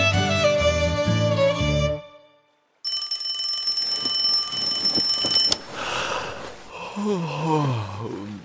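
After a brief musical jingle and a pause, a loud alarm clock rings continuously for about three seconds at 6 a.m., cuts off abruptly as a cabin boy switches it off, and is followed by sleepy groaning and yawning sounds.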